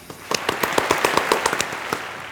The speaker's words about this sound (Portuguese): palmas para mestre Derivan novamente.